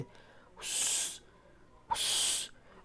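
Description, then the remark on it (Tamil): Two drawn-out hushing "shh" sounds, made with a finger to the lips as a warning at night by moonlight near a village pond with tamarind trees, each about half a second of soft, breathy hiss, separated by a short pause. Fairly loud against a quiet background. “நிலா வெளிச்சத்தில் ஊரணி புளிய மரங்கள் தட்டுப்பட்ட உடனே இருளாண்டித்தேவர் உதட்டில் விரல் வைத்து”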